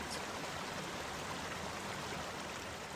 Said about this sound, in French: et même quelques petites cascades naturelles rafraîchissantes.